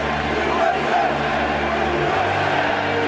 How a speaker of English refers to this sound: USA! The crowd just erupts in a chant of USA. There is nothing like it that I've ever experienced at a ball game.